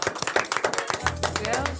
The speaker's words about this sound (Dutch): Die eigenlijk wel een klein applaus ja, verdient